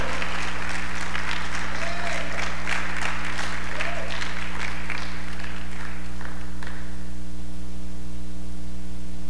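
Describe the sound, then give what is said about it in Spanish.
An audience breaks into steady applause for Jesus, many hands clapping loudly for several seconds before tapering off, over a constant low electrical hum. “Oh, aplauda a Jesús, por favor.”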